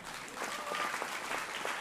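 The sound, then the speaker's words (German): An audience applauds the church band and team after a worship time, a dense, even wash of many hands clapping with scattered sharper claps standing out, at moderate volume throughout. “Lass uns der Band, dem Team mal einen fetten Applaus geben,”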